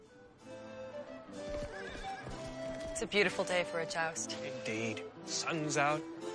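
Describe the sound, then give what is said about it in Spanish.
Horses whinny loudly and repeatedly over a busy, crowded medieval jousting tournament in a Bud Light commercial parodying a Game of Thrones fight, with hooves clattering in the background and voices talking underneath, all energetic. “nos muestra un torneo medieval de justa protagonizado por el caballero de Bud”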